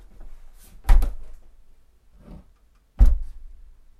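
An old wooden door is shut gently, with a soft creak and muffled thump near one second, then a second low thud a couple of seconds later.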